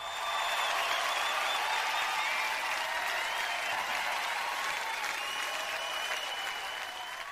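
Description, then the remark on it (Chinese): Steady applause sound effect from a crowd, played in on a radio show by the director at the host's request: a dense wash of many hands clapping at an even loudness for several seconds, tapering slightly at the end, with no voices over it. “要点掌声还费了这么大的劲儿，更何况还是向我们的导播要掌声，还没向各位要掌声呢。”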